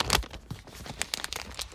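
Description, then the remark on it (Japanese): Plastic wrapping crinkles and tears as a package of Rias no Hiden Shizugawa thick-baked sasa kamaboko fish cake is opened to be eaten, a quick burst of sharp rustling followed by several softer crackles over under two seconds, with no talking. “えー、ちょっと開けて食べてみますね。”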